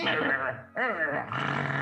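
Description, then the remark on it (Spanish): A person imitates creatures growling, a harsh, rumbling voice with two loud bursts separated by a brief dip, continuous for under two seconds. “Y empiezan a gruñir.”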